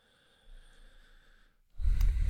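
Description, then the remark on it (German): A long, deep breath drawn in through the nose, starting as a quiet airy hiss and ending in a loud, rough rush of air. “jetzt hast du fix tiefer eingeschnauft als einer, der raucht.”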